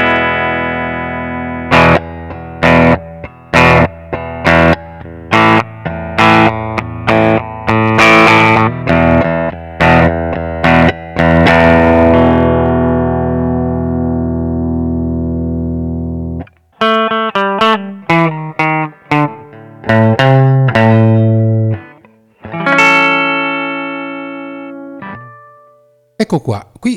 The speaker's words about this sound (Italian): Adesso ci spostiamo in un'atmosfera un pochino più aggressiva, anche se sempre sul pulito, ascolto, però il tipico suono roccheggiante USA, eh, anche qui giocheremo un po' con le varie posizioni dei pick up. Andiamo a sentire come va.